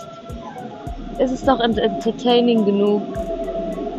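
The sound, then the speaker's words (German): A steady low rumble and faint tonal hum of trains or trams passing in the background, sitting quietly beneath a person talking in the foreground. “Man hört die Bahnen im Hintergrund.”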